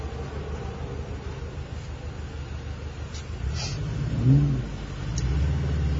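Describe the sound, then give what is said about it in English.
A 310-horsepower Cobra muscle car engine rumbles steadily, with a brief rev swelling near the end before settling into a louder idle, all over a constant low road-like drone. “Yeah, it's that's a 310 horsepower uh, Cobra.”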